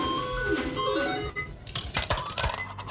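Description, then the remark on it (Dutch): A bright coin sound effect marking a second coin: shimmering, chiming tones ring out first, then a quick run of sharp metallic clinks like coins dropping, fairly loud with no voices over it. “Hier komt je tweede muntje.”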